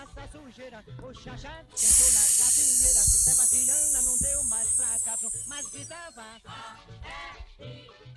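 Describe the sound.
A voice makes a long, loud hissing "sss" sound, the sound of the letter S, lasting about four seconds, starting abruptly and slowly fading, over a soft, steady tonal background.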